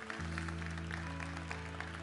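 A church audience applauds the Lord in a steady, dense wash of clapping that holds for the whole stretch, over a sustained low keyboard chord.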